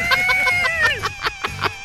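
A refrigerator gives off a rapid series of nasal, duck-like quacking squawks, about eight bursts over a steady humming whine, fairly loud, with no talking.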